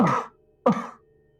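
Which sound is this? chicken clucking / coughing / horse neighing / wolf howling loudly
coughing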